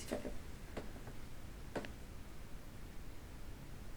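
A few quiet, sharp cracks from both ankle joints popping, spaced irregularly over a faint steady background hiss, with no voices.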